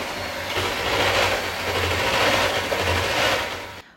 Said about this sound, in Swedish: Och så tar vi och häller i lite grädde. Och så efter det så tar vi sockret. Och så sätter vi lite vaniljsocker också. Sen då så tar vi bara och vispar ihop allt det här tills det blir en ganska fast kräm av det.